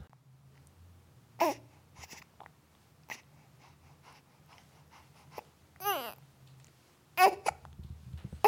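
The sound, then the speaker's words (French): A baby whimpers and babbles in a few short, fussy bursts, with brief cries rising and falling, separated by quiet pauses and soft breathing. “Tu comprends vais chercher maman, elle va venir te porter, d'accord hein Non, arrête de pleurer, je suis désolé.”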